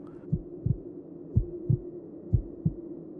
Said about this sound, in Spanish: Solo podía escuchar mi corazón latir rápido.